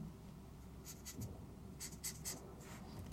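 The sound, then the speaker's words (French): A pen scratches across paper in short strokes while drawing a clock, with a few brisk bursts of scribbling over a low background rumble, fairly quiet. “et là, tu vois, ça serait de représenter une horloge, comme ça,”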